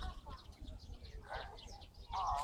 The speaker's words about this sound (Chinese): 就这个小声小的叫声不是它的，是那个麻雀的。